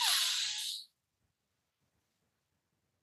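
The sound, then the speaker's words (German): A single breathy inhale through the nose as part of a simplified yoga breathing exercise, airy and fairly loud for just under a second, then near silence with a faint click at the very end. “Wir atmen durch die Nase ein und zwar vier Sekunden, also eins.”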